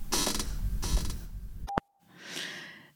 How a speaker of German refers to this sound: Stuhl quietscht gerade für alle, die es nicht hören können. Ja, er quietscht wirklich sehr.